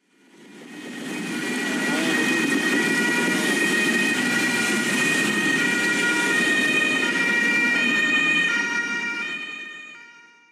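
An emergency vehicle siren wails steadily over dense road traffic, its tones holding loud for several seconds over a broad rumble of engines before fading out.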